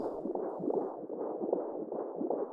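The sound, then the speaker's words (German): A muffled, whooshing heartbeat announcing new life pulses steadily, about three beats at a fairly quick, even rhythm, continuous with a constant low rumble beneath and no voices. “Den Herzschlag?”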